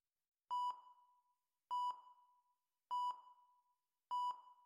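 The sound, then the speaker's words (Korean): Hospital monitoring machines, including an oxygen saturation monitor, beep at a dying patient's bedside in a steady pattern, four paired electronic tones repeating about once a second, clear with no voices. “나는 위아래로 들썩거리는 장인어른의 가슴을 마치 비행기 조종석처럼 수많은 기계가 삑삑 소리를 내는 동안 모르핀을 맞아 멍해진 장인어른의 눈을 바라보았다.”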